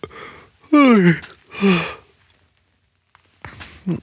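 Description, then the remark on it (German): A drawn-out yawn with a falling, breathy voice, followed by a shorter second yawn, then a pause and a brief throat clearing near the end. No one speaks. “also, ich entschuldige mich jetzt für das Räuspern und das Gähnen.”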